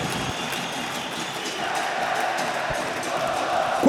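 A large stadium crowd of Grêmio fans roars in celebration after a goal putting Grêmio 4–0 up, a dense, steady wash of cheering and shouting that swells slightly louder toward the end.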